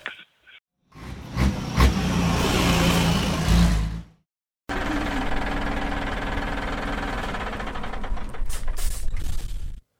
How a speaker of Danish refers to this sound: Ja, sådan lyder det, når en øh, minister kører biogas-lastbil. Det var nemlig selvfølgelig transportministeren her, der øh, ankommer til interview